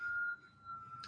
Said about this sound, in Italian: Ecco, nel piccolo c'è un fischio di fondo, è vero, lo sento anch'io, francamente non so cosa sia dovuto al suo PC. Eh, proveremo a sopravvivere.